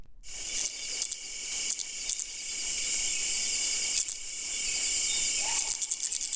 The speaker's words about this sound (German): Das sind so Reibegeräusche der Stacheln, die er so aneinander reibt. So klingt das.